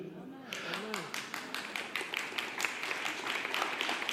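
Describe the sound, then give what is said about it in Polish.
A lone girl claps her hands in a steady, quick, even rhythm, about five sharp claps per second. Faint vocal sounds are heard briefly at the start, over a low background murmur. “Słuchajcie, jedna dziewczyna klaszcze, pomóżcie jej, no bo ona się zawstydzi, jeżeli rozumiecie.”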